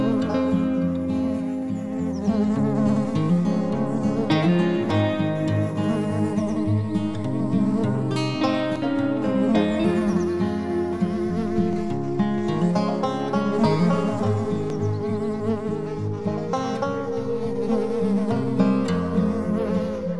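A dense, continuous buzzing of many bees swarming, a steady droning hum with shifting, wavering pitches that stays loud throughout.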